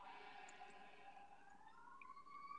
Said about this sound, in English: can you hear those sirens? Yeah. Yeah. Okay, sorry. okay, they're gone.